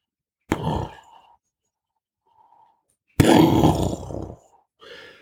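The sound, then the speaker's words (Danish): A voice imitates a thunderclap, first a short, rough rumbling burst, then after a pause a longer, louder roaring crash that fades out with a brief breathy trailing sound. “Det var et tordenskrig.”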